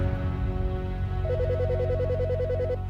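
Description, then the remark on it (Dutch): A telephone rings with a rapid electronic warbling trill for a second or so, a call from the police in The Hague in summer 2021, sounding over a steady low droning background bed, with no one speaking. “In diezelfde zomer van 2021 krijgt officier Bas een telefoontje van de politie in Den Haag.”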